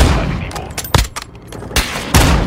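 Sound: video game gunfire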